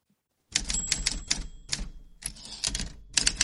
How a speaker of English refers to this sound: Okay, we're ready for the typewriter.